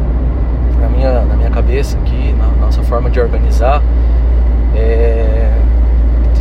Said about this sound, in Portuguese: desculpa o barulho que a gente está tá em trânsito aqui.